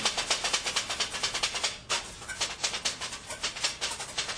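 Kottu being chopped finely on a griddle: fast, steady metallic clacking in a rattling rhythm, with a brief gap partway through and no voices.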